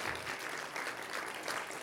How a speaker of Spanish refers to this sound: Denle un aplauso a los hombres. ¡Qué privilegio!